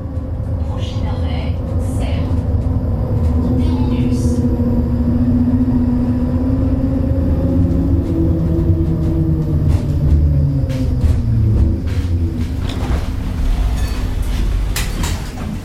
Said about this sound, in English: Stepping off the tram that takes you from central Geneva to the main entrance of CERN, you could easily miss the fact that this is where thousands of scientists are hard at work, building the future of physics.